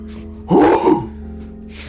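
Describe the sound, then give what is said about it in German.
A single sharp sneeze bursts out, loud and brief, then fades back to quiet with a faint steady hum. “ich muss mal ganz kurz, es ist Zen-Niesen.”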